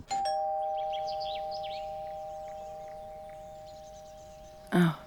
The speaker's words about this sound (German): In dieser Zeit, im Sommer 2009, während einem der ziellosen Spaziergänge in den Wochen, bevor er Emmy kennenlernt, steht er vor Nathans Haus und klingelt.